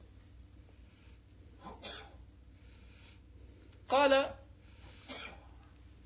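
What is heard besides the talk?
a person sneezing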